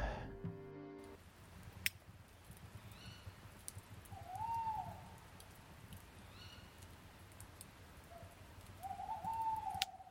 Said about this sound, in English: Uh, yeah, I, try, I, I, sort of woke up to it felt like a couple of owls were, were very close, and I tried to record it. So look, this is the owl. This is well, this is a couple of tawny owls from round my hood.